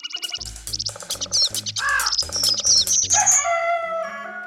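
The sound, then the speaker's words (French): Several birds chirp and warble together in a lively, continuous chorus, bright trills and quick tweets overlapping, with a brief louder whistled phrase near the end. No voices. “Selon le dictionnaire de l'Académie française de 1762, le bout en train était un oiseau qui servait à faire chanter les autres.”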